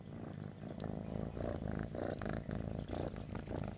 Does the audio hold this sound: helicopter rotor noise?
no